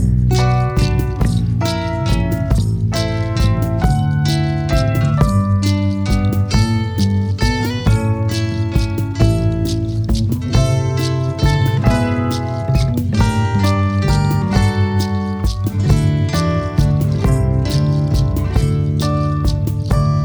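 A full-band song plays loud and close, with a steady driving beat, sustained bass and bright chiming instruments. The passage is instrumental and dense from start to finish.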